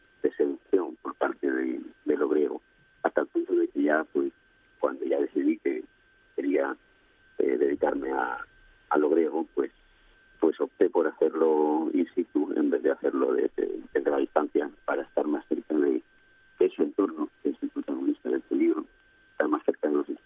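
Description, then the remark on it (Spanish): A person talks over a thin, tinny telephone line, the voice narrow and boxy with a faint steady whine underneath and choppy breaks where the signal drops out. “se te oye un poquito. Acércate bien al, al teléfono, …, que te, perdemos un poco ahí en la parte de la señal final”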